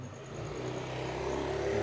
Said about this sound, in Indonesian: suara motor